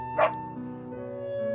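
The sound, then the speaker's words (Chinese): A single short, high yap from a small dog named Jiang Brown (江布朗), with a soft sustained musical tone humming underneath before and after it. “露丝太太的丈夫很久以前就去世了，一直以来，他和一只叫江布朗的小狗住在一起。”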